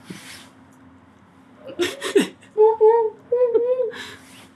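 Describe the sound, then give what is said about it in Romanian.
After a throat clear, a person imitates an owl with four tonal hoots in two quick pairs, loud, with no other talking around them. “tu, zim tu ceva și eu încerc. Uh, o bufniță.”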